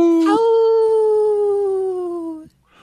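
A single wolf howl, loud, rising quickly and then holding a long, steady, slightly falling tone for about two seconds before cutting off abruptly.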